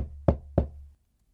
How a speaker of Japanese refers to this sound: 地図に記されたその家は周りに比べても一段と古めかしかったその外観を眺めているとなぜかぞっとするような恐怖が湧き起こった私は恐る恐る扉をノックした